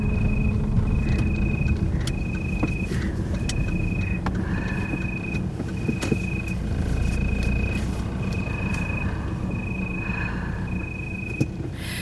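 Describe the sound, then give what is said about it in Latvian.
Steady low road and engine rumble from inside a moving car, with no one speaking, and a faint high-pitched tone that keeps cutting in and out at regular intervals. “tu iznāc no meža, iesēdies mašīnā, brauc un dungo, tu dziedi dziesmu, jo tas bija dabīgais veids, kā tu ierakstīji šo dziesmu.”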